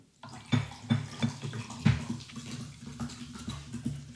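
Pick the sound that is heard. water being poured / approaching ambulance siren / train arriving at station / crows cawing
water being poured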